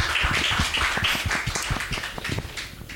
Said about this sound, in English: So give yourselves a big round of applause.